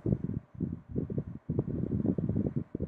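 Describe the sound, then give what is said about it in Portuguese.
Low, rumbling wind noise from an electric fan blowing air, buffeting in uneven gusts with brief dips throughout, fairly loud and with no one speaking. “Deixa eu, deixa eu mexer bem aqui no ventilador, porque senão vocês vão ficar escutando muito barulho de vento.”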